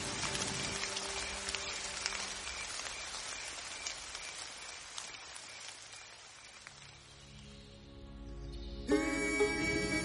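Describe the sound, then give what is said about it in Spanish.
Steady rain falls in a dense, continuous, even hiss of patter, with a brighter ringing tone rising briefly near the end; no one speaks. “Empezó a llover.”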